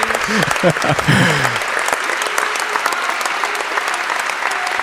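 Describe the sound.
Loud, steady audience applause of many hands clapping at an award presentation, a dense crackling wash throughout, with brief voices and a short melodic fanfare flourish heard in the first second and a half.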